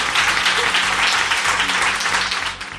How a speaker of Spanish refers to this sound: Y la otra cara, qué bonito, podéis, podéis aplaudir. Gracias.